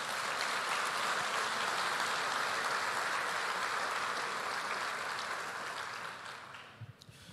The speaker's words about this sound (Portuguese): Aplauda o Senhor mais uma vez.